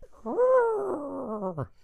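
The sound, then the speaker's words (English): A single strained, whinny-like sound of a retraction box closing, a mechanical groan combining horse and car sounds, its pitch rising and then sagging over about a second and a half, fairly loud, with no talking. “It's a brilliantly combined horse and car sound.”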